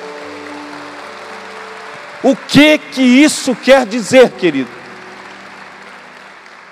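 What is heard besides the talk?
audience applauding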